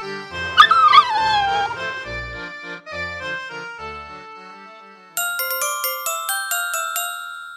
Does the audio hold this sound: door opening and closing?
no